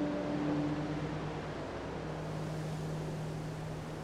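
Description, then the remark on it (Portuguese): Steady rushing ocean surf, a continuous wash of water noise without clear breaks between waves, with a faint low motor-like hum underneath at first. No voices. “Puro chuá.”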